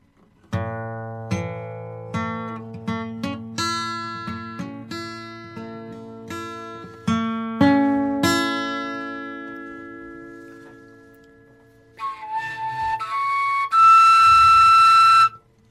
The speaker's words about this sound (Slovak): A dajme tomu, keď na tejto gitare teraz zahrám adur.